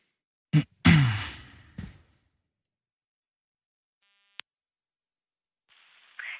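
A few breathy exhales, then quiet, then a single short electronic beep followed by a brief patch of thin, filtered telephone-line hiss as a telephone answering machine picks up. No one speaks.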